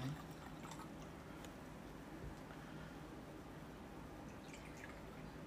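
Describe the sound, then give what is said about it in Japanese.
Dassai sake is poured into a glass, giving a soft, steady trickle with faint glugging drips running through the whole pour, quiet and with no one speaking. “このトトトト言おうとしてんなこの音がいいよね”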